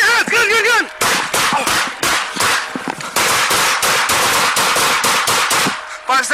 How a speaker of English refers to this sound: In the video, the officers unload a barrage of gunfire